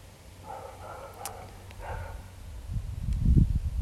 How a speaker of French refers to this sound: Ah, il me saoule ce chien, il me saoule.